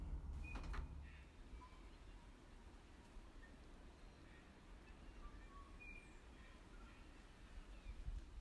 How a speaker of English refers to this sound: that one is at the top of the canopy. So there's a couple of birds at the top of the canopy, but actually, mostly uh, you have got the wind in the distance and just a few birds, and the trees are quite thin.